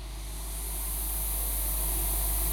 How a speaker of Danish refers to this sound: Det, I hører i baggrunden, er en improvisation, som jeg har lavet her til aften på mit seneste nyanskaffelse, som er et 5U modular system.